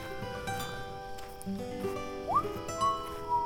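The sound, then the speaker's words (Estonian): A person whistles a few short, rising notes near the end, fairly soft, while walking on in the evening through a forest, over a steady humming tonal background with no talking. “nõnda siis pistis ta hõberaha endale vöö vahele ja hakkas vilet lastes edasi kõndima, sest aeg sõudis juba õhtusse ja läbi metsa oli veel parajasti minna.”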